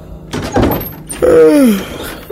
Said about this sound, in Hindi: भानु ने तुरंत दरवाजे को जोर जोर से खटखटाना शुरू किया तकरीबन एक मिनट तक दरवाजा खटखटाने के बाद कहीं जाकर दरवाजा आधी नींद में उसके क्लासमेट अमित ने खोला और पूछा